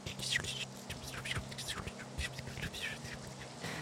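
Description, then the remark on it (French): Someone makes soft, hissy, crackling mouth sounds imitating falling rain, a steady patter of breathy bursts over a faint low hum. “C'est comme la pluie qui tombe.”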